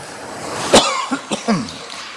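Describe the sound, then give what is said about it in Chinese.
A man coughs sharply once while teaching students, then follows with three weaker, raspy coughs in quick succession, the last ones trailing into a hoarse, throaty rasp. “教学生这么容易的，还要带着咳嗽。”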